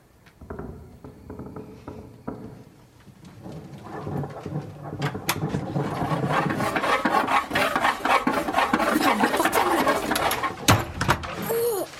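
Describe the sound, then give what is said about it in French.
Rough, rasping scraping on a wooden door, like sawing or scratching, starting faint and building into steady, repeated strokes that continue to the end. “Qui est la vieille toute nue qui, gratte comme un chat sur la porte.”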